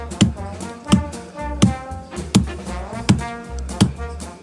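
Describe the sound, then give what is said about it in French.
Seven sharp, solid knocks on a hard counter, evenly spaced about a second apart in a steady, deliberate rhythm, with a low murmur of sound underneath. “Il cogne sur le comptoir comme ça.”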